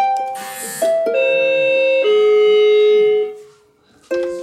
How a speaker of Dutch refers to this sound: De deurbel die, eh, die klinkt heel luid, want ze, ze hoort niet zo heel erg goed.